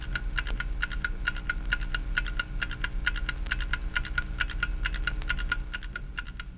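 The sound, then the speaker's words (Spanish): A small clock ticks quickly and steadily, with crisp, bright clicks repeating at an even rhythm over a faint low hum with no voices. “Cuando se pudieron hacer cuerdas de resorte finito y escapes de rueditas, ya tenemos en escena a los relojes chiquitos.”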